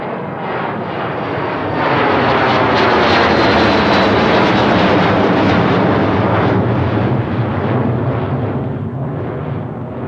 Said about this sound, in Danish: De første jetfly, de larmede helt ubeskriveligt og det gjorde, at, at naboerne de, øh, blev forstyrret voldsomt i deres nattesøvn. Og lægerne på Amager de fik øh, mange besøg og mange klager på grund af den her frygtelige støj.